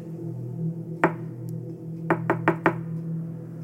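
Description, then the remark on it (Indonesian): Knocking on a door: a single firm knock, a pause with a faint tap, then four evenly spaced knocks in a row, all over a steady low background hum. “suara ketukan lambat itu kembali terdengar.”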